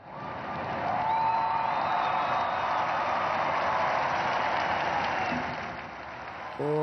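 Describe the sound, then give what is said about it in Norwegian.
A large crowd cheers and applauds Pope Francis as he raises his index finger, a sustained, dense roar of clapping and shouts, with a few whistles and whoops rising above it before the noise briefly dips and a voice cuts in. “pave Frans får jubel når han hever pekefingeren og gjør et poeng av at Sankt Peter ikke hadde bankkonto.”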